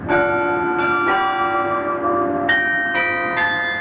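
The bells of Beaumont Tower on the Michigan State University campus ring out in a steady, overlapping peal in remembrance of a shooting one year earlier, each strike blooming into long, shimmering overtones that hang in the air. No voices, just the resonant tolling.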